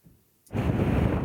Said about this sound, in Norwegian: Det er vår i lufta, og en sval vind bles nedover kysten av Montenegro.